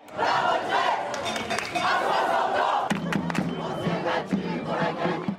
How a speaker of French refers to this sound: Partout, la même colère et des tensions. Les mêmes slogans ont ainsi retenti de Bordeaux.